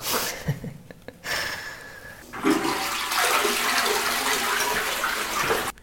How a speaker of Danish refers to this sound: Jeg kan forestille jer, at jeg hælder lidt saft op i en kop, hvis det er for meget jer.